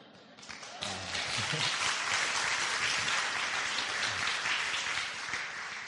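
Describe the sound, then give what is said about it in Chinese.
Audience applause erupts after a brief moment and holds steady, a dense wash of many hands clapping at once, loud and sustained, with faint voices mixed in beneath it. “刚刚念引就已都没有这样的掌声啊！”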